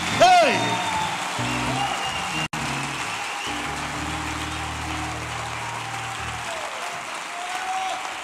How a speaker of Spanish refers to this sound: Levanta la mano al cielo. Usted va a aplaudir. Aplauda militantemente.